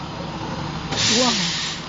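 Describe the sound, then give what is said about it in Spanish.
A bus in Puerto Rico idles with a low engine rumble, then a loud burst of air-brake hiss cuts in about halfway through and lingers to the end. “Bueno, e, en estos momentos está el ruido de, de la guagua, como le dicen acá en Puerto Rico, al bus de los poetas, que somos la nave.”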